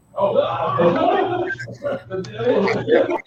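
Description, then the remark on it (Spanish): Several coworkers shout loudly in the background at their workplace, a raw, overlapping burst of yelling that runs almost without pause for a few seconds, with brief dips between outbursts. “Qué gritones son en tu lugar de empleo,”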